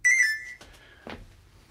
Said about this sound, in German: Was piepst denn da? Jetzt hat doch der Steiner sein Handy vergessen.